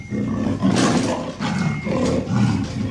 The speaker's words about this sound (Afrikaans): Toe, skielik, hoor hy 'n harde brul. Die jagter skrik hom boeglam en hy kyk bang om hom rond. Maar hy sien niks nie. Toe brul die dier weer.